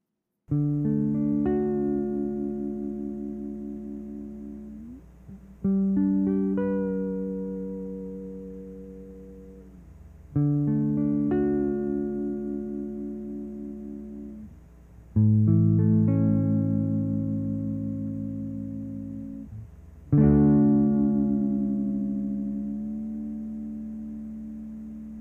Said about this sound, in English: Here to demonstrate the use of a Bigsby, I've got my Gretsch G2655T, which comes stock with a Bigsby B50, the import version of the Bigsby B5.